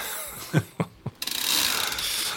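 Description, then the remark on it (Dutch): Three dull knocks, then the freewheel ratchet of a new bicycle spins into a fast, steady run of ticking clicks, fairly loud, with no one talking. “Kijk. is een nieuwe fiets.”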